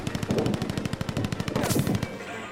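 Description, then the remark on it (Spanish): Rapid machine gun fire from assailants in a raid on Trotsky's guards rattles in a continuous burst of closely spaced shots for about two seconds, loud and sharp, then cuts off abruptly. No voices are heard. “Poco después oímos varias descargas cerradas. Comprendimos que disparaban con ametralladoras.”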